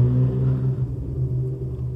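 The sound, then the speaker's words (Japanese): A sports car engine on a residential street rumbles steadily with a low, droning growl, holding a fairly constant idle-like tone for the whole two seconds, moderately loud, with no voices. “あんな四角い、ね、スポーツカーがブンブン言ってますけどね、今。”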